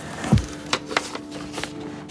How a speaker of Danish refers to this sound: Det her er en optagelse af min gamle klassekammerat Miki og mig, der roder rundt i en flyttekasse